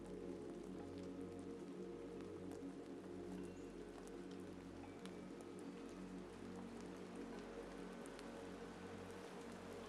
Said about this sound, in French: Visualisez chaque goutte de pluie lumineuse qui tombe sur vous et vous enveloppe d'une énergie purifiante, apaisante, ressourçante.